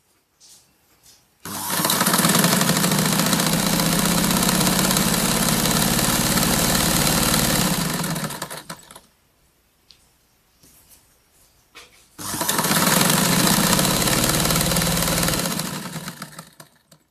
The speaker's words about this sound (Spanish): entre el sonido de las máquinas de coser, fileteadoras, recubridoras y planas, también las pulidoras, los hilos, las tijeras, las pinzas y el olor del aceite de máquina.